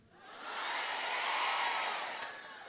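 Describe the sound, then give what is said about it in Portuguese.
A large audience shouts a loud, unified cry of "Glory to God," the roar of voices swelling quickly, holding steady for a couple of seconds, then easing slightly at the end. “Quem pode dar um glória a Deus bem alto pelo homem?”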